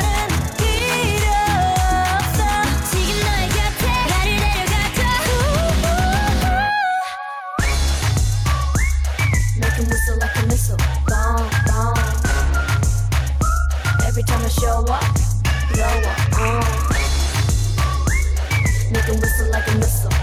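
A K-pop girl group song plays loud and upfront, a catchy whistled melody riding over a pounding, booming bass beat, with a brief silent break before the track kicks back in.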